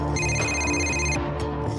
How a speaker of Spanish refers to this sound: Cuando le sonó el teléfono, era Delen.